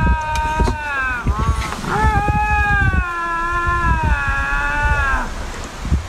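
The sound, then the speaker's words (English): Two cats yowl in long, wavering, drawn-out wails, their cries rising and falling and overlapping in a tense territorial standoff, with low rumbling noise underneath. “there was the possibility that it was two males competing for a female or simply two cats that crossed paths and are letting each other know about uh, about their territories.”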